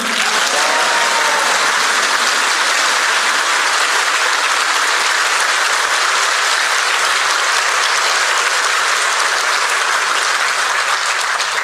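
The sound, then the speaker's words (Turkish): A large outdoor crowd at a political rally in Batman, Turkey cheers and claps continuously, a dense, steady roar of applause and shouting that stays loud and even for the whole stretch, with no single voice standing out. “Batman'dan ses biraz zayıf çıktı. Tam anlayamadım.”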